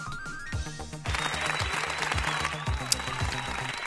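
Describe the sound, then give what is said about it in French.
Music with a steady, thumping beat plays, and after about a second a crowd bursts into sustained applause, dense clapping that continues loudly over the rhythm until the end. “Plus de musique, plus d'applaudissements.”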